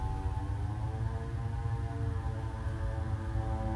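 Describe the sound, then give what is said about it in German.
A motorcycle engine drones steadily outside, a low buzzing hum with a constant pitch that holds for several seconds at a fairly even loudness, with no voices. “Nee, das ist ein Motorrad.”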